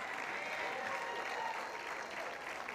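Loud, sustained applause from a crowd, given to Jesus, a dense steady wash of clapping that holds at an even level for the whole stretch without breaks.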